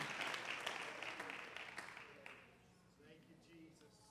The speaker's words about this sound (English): Clap your hands to the Lord and give Him praise in this house.